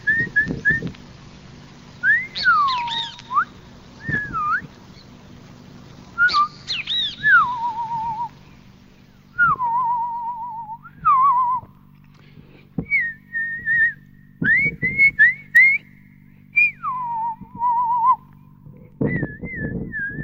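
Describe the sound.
A person whistles in imitation of birdsong, recorded in 1979, with swooping, warbling phrases and short chirps in bursts, clear over a low steady hum, with no talking.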